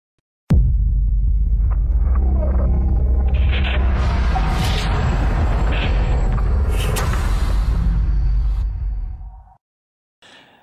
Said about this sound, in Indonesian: Opening udah bumper juga udah tapi kok masih sepi ya